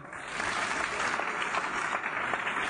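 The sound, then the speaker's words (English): A crowd gives itself a big hand, clapping steadily and continuously, a dense wash of many hands at moderate loudness with no voices rising above it. “Oh, give yourselves a big hand.”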